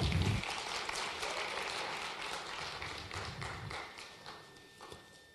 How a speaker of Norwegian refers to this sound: Det er bra. Kjempefint. Gi dem en applaus, da.